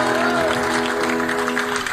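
A steady burst of audience applause, many hands clapping in a dense, continuous patter at an even loudness, with a faint sustained tone and a hint of voices underneath.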